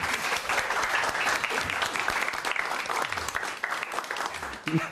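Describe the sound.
An audience applauds steadily after a sketch, a dense wash of many hands clapping at once that holds for the whole stretch at a fairly loud level, with a few faint voices mixed in.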